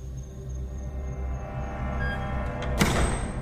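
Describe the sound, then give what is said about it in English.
The big oak doors of a great hall swing shut slowly and quietly, ending in a single soft thud with a faint latch click, over a low, steady rumble of room tone. No one speaks. “quietly close the big oak doors of the Great Hall behind them”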